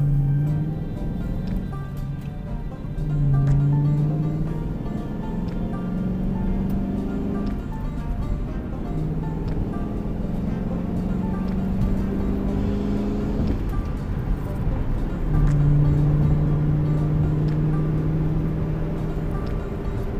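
A Ford Mustang car engine idles and revs, its low rumble rising and falling in several throaty swells over a steady mechanical drone, with no talking.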